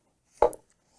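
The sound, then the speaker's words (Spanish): A single bright clink of glasses touching in a toast, short, with a brief high ring fading quickly into quiet. “Así que gracias por venir y salud ahí. Salud.”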